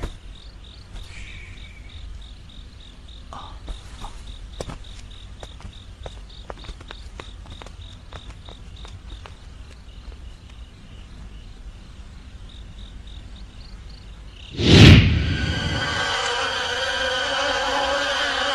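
A thin, steady insect chirring pulses quietly, then a sudden loud rush of dense buzzing swells up like a swarm of bees taking off and keeps droning to the end.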